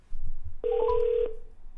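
A single steady electronic telephone tone sounds clearly for about half a second against a low background rumble: a busy signal on a call to reporter Kim Han that won't go through.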